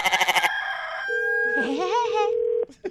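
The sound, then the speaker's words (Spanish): A rooster crows in a long, warbling call over a steady held tone, following a quick burst of rhythmic pulses at the start; no one speaks. “Oiga, me hace favor de callar los gallos porque no dejan dormir.”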